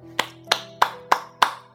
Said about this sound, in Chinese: 小阿力讲完故事，贝贝贝瑞老师为他鼓掌